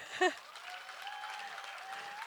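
An audience at a Christian conference applauds in a steady, dense patter of clapping, with a brief brighter burst at the start and a faint sustained tone lingering underneath.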